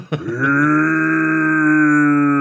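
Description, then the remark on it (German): A person voices a bear's roar: one long, sustained, low growling cry, loud and steady, opening with a brief rough onset before settling into a held, buzzy tone. “aber trotzdem siehst du aus wie ein Bär, der auf Hinterbeinen steht. Und wenn du da noch so brüllst.”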